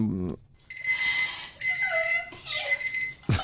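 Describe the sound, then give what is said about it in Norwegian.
A voice imitates an alarm clock's beeping with three long, high, whiny tones separated by short gaps. A brief bit of speech comes just before, and a short burst of noise at the end. “Den har en sånn irriterende, sånn helt, helt vanlig pipetone.”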